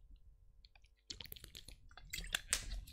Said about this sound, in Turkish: Bir yudum suyumuzu alıyoruz.